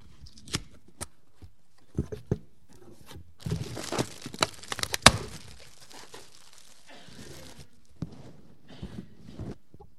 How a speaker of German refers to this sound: Ich möchte jetzt mal den Karton hier aufmachen.